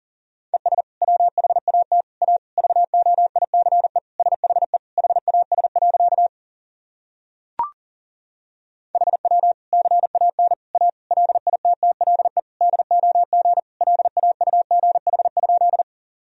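Rapid Morse code tones at 40 words per minute sending practice sentences built from the top 500 words and abbreviations: a steady mid-pitched beep keyed into fast dots and dashes, with a brief click and a short gap midway before the sending resumes.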